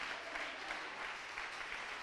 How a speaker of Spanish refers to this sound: Mire, por favor, e, esto no es, esto no es un, el aplauso no es un halago al ministro, es una ovación a la palabra.